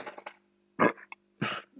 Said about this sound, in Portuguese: aquele arrotinho gostoso.